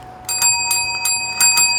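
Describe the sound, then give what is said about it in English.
A small bell rings in a quick series of about six bright strikes, fairly loud, its sustained metallic tones shimmering between hits, with no voices. “That deserves a bell. Yes, it deserves 10 bells.”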